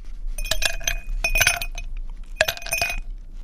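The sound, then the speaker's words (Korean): Ice cubes drop into a glass in three quick bursts, each a cluster of bright, ringing clinks and rattles, with short pauses between and no voices. “아, 이게 지금 잔에다가 얼음을 넣는 소리입니다.”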